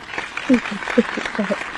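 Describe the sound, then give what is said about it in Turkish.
A short burst of light clapping, quick and scattered, with a few voiced sounds, like brief laughter or murmurs, mixed in over it. “O zaman seni alkışlıyorum.”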